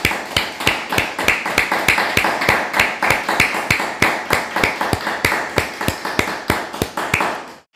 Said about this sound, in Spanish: Vamos a ofrecerle un gran aplauso a Hashem por las madres que nos ha entregado, cada uno de nosotros.